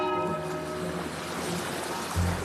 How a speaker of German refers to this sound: Da kommt der Boot. Mein lieber Heiland. Da kommt der Boot.